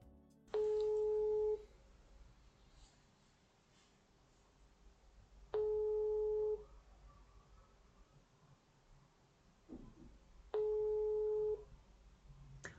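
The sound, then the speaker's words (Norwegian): A telephone ringback tone sounds three times, each a steady one-second beep separated by about four seconds of quiet line hiss, as an outgoing call to the communications director of Statsbygg, Norway's public construction agency, rings unanswered. “Det høres veldig rart ut, så jeg tror jeg må ringe kommunikasjonsdirektør i Statsbygg,”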